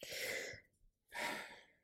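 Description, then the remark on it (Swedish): Two forceful, breathy sneezes separated by a short pause, each a burst of harsh hissing air with no talking around them. “Eh, det är väl ingen podd utan att jag nyser?”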